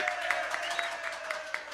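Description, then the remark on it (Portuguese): A crowd applauds steadily to celebrate the 60th anniversary of the company EMAP. The sound is a dense wash of many hands clapping at an even volume, with a few sharper individual claps popping out at a regular beat. “A gente tem que aplaudir os 60 anos da EMAP.”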